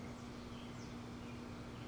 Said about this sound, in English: So now I'm just underneath my deck. I'm next to my air conditioner, so there's a hum right in front of me.